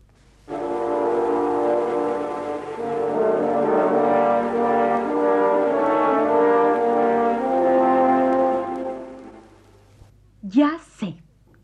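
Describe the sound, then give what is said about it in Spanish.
The wolf's theme from an orchestral children's tale: a slow, menacing orchestral theme of loud, sustained brass chords shifting in pitch for about nine seconds, followed by a brief burst of a voice speaking. “es el tema del lobo, de Pedrín y el lobo, el cuento de Prokofiev”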